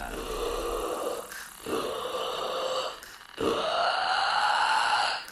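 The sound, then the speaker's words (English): A voice imitates the creaky, guttural call of the Babadook monster in two long drawn-out bursts with a brief pause between, rasping, breathing out for the first half and in for the second half, with no other talking. “No, this, this, the first one, the first half you need to breathe out, the second half you need to breathe in.”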